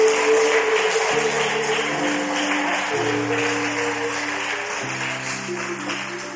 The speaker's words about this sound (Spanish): En el nombre de Jesús, alguien dele aplausos en esta hora al Rey de Reyes, al Señor de Señores.